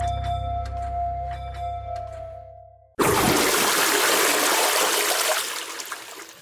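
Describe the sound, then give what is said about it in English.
A toilet flushes, a sudden loud rush of water that surges for a few seconds and begins to taper off, following a fading low hum. “Yep, that was the sound of a flush because we're talking toilets with science writer Chelsea Wald in the Netherlands.”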